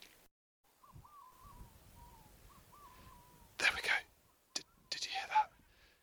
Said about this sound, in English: It's 9:51 p.m. and we've just heard our first Manx Shearwater distantly up the hill. So we've heard some distant Manx Shearwater calls coming from high up in the hills.